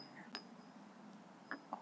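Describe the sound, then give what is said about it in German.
Glasses clink together in a toast as people say goodbye, one bright ringing clink followed after a pause by two more in quick succession, fairly soft against a quiet murmur. “wir, wir stoßen an nochmal und würden uns nochmal verabschieden.”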